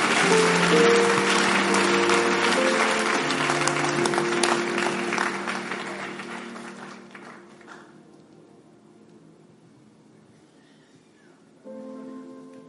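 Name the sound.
audience clapping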